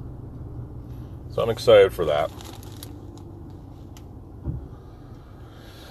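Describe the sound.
Steady low rumble of a car interior on the move in traffic with the air conditioning running, heading home, with a man speaking briefly early on and a soft thump near the end over the constant road hum.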